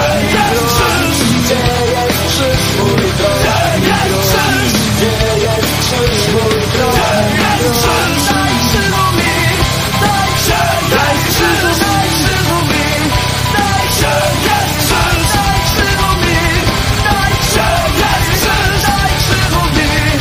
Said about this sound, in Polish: widzicie, przetrwaliśmy tę piosenkę. Uwielbiam tę piosenkę.